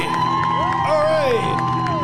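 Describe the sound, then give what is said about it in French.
A studio crowd cheers and whoops loudly for about two seconds at a Christmas Eve special party, with high, sliding yells rising and falling over a dense, steady wash of shouting voices. “Ah, la foule est ici aujourd'hui pour la party. Calmez-vous le monde en studio.”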